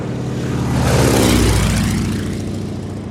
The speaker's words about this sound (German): Ein Durchflug unter der Großesloher Brücke. Durchgeführt mit einer einmotorigen Maschine von Fliegerlegende Ernst Udet, der Ernst Reicher in dieser Szene dubelt.